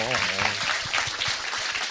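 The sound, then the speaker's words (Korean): A crowd applauds steadily for a couple of seconds, a dense, fairly loud wash of clapping, with a brief voice at the very start and murmuring beneath it. “박수 한번 박수 한번 주세요.”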